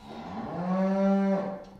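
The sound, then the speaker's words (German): A single cow moos once, a long, steady, low-pitched call that swells and then fades over about a second and a half, heard clear with no talking. “Der Bauer muss sich um seine Kühe kümmern.”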